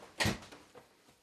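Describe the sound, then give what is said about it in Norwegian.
A door shuts with one muffled thump as someone leaves a living room through it, followed by a few faint, softer knocks as it settles. It is fairly quiet and there is no talking. “forsvinner ut døra.”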